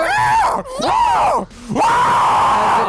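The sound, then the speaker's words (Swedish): A voice imitates the cry of a common gull (fiskmås): three loud, wailing calls that swoop up and down in pitch, separated by short breaks, the last one drawn out and held. “Alltså fiskmåsar låter ju bara... Det låter såhär...”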